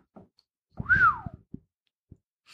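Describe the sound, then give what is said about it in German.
A single appreciative whistle from a person, rising then sliding down in a quick arc, clear, with a few soft clicks and thumps around it. “Das Was war der anerkennende Pfiff”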